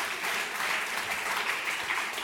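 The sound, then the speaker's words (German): Steady applause from an audience after a prize is announced, a dense wash of many hands clapping at an even, sustained level without pause for the whole stretch. “ich entnehme so ein bisschen dem Applaus, dass das viel ja. mehr noch auch gerne hätte.”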